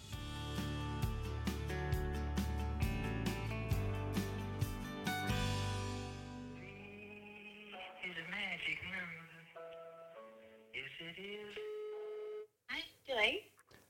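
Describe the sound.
A phone call is placed over a loud stretch of music, then a thin, tinny phone-line sound takes over with brief voice-like bursts, as if heard through a handset.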